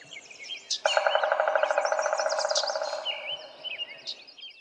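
A pileated woodpecker gives a loud, rapid run of repeated notes lasting a couple of seconds, while smaller birds chirp and twitter in the background throughout.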